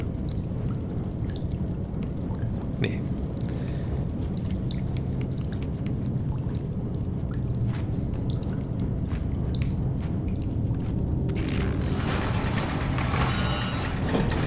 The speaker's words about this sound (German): So, jetzt geht die Tür auf. Und ich komme nicht durch.